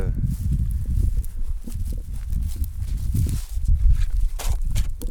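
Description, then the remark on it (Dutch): Footsteps crunch steadily over rough ground in a vineyard, walking from the old vines to the newly planted young vines, a continuous run of uneven steps with a low, rumbling background underneath. “Van de oude gaard lopen we naar de nieuwe aanplant.”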